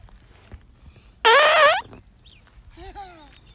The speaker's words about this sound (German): Genau, ein Brüllkäfer. Wow, so einen freier Wildbahn zu hören, ist echt eine tolle Sache